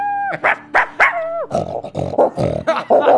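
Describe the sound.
A person imitates two small dogs, first with a few drawn-out whining yelps, then a quick run of rough, throaty barks, all loud for about three seconds.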